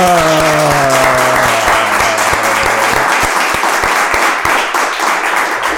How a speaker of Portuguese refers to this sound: e por isso eu vou-vos pedir a quem está aqui a dar com uma enorme salva de palmas as boas-vindas ao grande